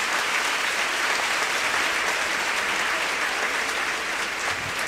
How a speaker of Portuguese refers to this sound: Vai! Pode aplaudir o Senhor Jesus.